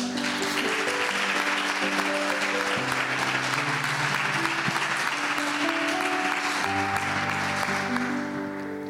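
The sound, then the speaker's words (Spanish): An audience applauds the Word steadily for several seconds, a dense, continuous clatter of many hands, while sustained keyboard chords play underneath, easing off slightly at the end. “Era un aplauso a la palabra.”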